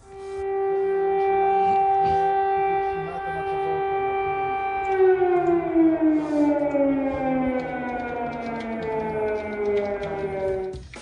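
An air raid warning siren wails loudly in Kyiv, Ukraine, during the Russian offensive, holding a steady tone for several seconds before its pitch slowly sinks, over a low background rumble with no voices.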